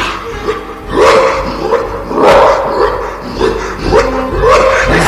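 A huge jet-black dog, bursting out of a wall of fog, barks loudly, letting out a series of deep, harsh barks in uneven bursts across a few seconds, with short pauses between them.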